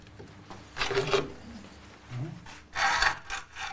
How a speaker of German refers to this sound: Also exakt ausmessen, den geplanten Schnitt anzeichnen und dann mit der Säge ran. Präzise Handarbeit ist gefragt. Einmal versägt und die Leiste wäre Müll.